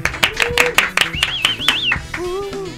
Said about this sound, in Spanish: Un aplauso, por favor.